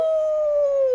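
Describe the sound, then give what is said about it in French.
A person imitates a wolf howl with one sustained, steady tone that drifts slightly lower over about a second, loud with no other sounds around it. “ça c'est le loup.”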